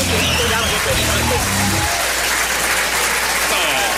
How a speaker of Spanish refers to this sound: cortinilla y aplausos